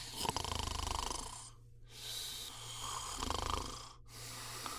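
Ten sleeping girls snoring loudly, with long raspy breaths broken by two brief silent pauses. No voices or other sounds, just the rhythmic rumble of snores.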